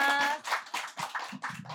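A group applauds close by in brief, uneven bursts of clapping, with voices calling out and talking over it at the start.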